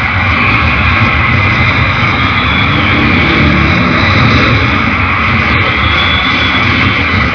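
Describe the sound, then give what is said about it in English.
Motorcycle engines roar loudly and continuously as motorcycles are ridden around on stage during a live concert performance, a dense, steady rumble that fills the whole stretch without pause or speech, as if several bikes are idling and revving. “they're riding motorcycles around on stage in the video right now, if you haven't seen it.”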